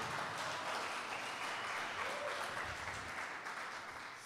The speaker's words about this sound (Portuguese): E se você toma posse disso, aplauda Jesus bem alto.